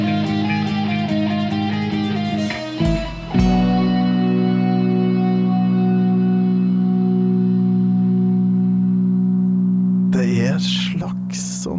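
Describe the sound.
A distant gong rings softly behind heavily effected music, its deep resonant tone swelling and then fading slowly over several seconds. Brief voices cut in near the end.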